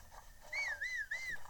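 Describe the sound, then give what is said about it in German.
A video game character whistles a short, wavering tune as the player holds the whistle button to sprint, the pitch rising and dipping in smooth swoops for about a second, clear against a quiet background with no talking. “Ihr müsst die Pfeif-Taste gedrückt halten, mit dem Zeigefinger am besten laufen und dann die ganze Zeit hintereinander B drücken.”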